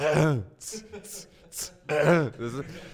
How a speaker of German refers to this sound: Oder wenn man sich räuspert und ist also auf jeder Eins.